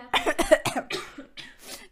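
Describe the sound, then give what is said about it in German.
A burst of several harsh coughs in quick succession from someone who is sick with an itchy throat, followed by a couple of weaker, raspy coughs trailing off, heard on their own without talking. “und mir husten”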